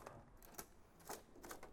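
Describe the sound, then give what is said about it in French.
A sheet of paper being fed and clamped into a braille writer: a few soft, irregular mechanical clacks and a light rustle, quiet, with no voices. “On rentre la feuille. On coince la feuille.”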